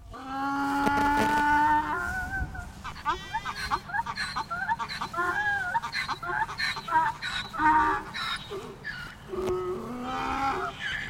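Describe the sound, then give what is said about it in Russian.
Chickens living outside cages on a farm cluck and squawk in a busy, overlapping chorus that continues without pause, fairly loud, opening with a longer drawn-out call before settling into choppy clucking. “Голос куриц: как живут птицы вне клеток”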